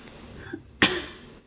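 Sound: cough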